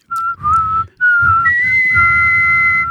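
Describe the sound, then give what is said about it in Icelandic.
Someone whistles a short melody, a theme for others to guess, of sustained, clear notes with small pitch glides, pausing briefly between phrases and ending on a long held tone over soft low background noise. “Já En getið þið ratta til dæmis þetta stef í flöyti”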